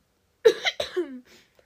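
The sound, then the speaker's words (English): A short burst of two or three rough coughs in quick succession, caused by allergies, fading into a soft exhale, with no talking. “and sorry for the coughing because just allergies and stuff.”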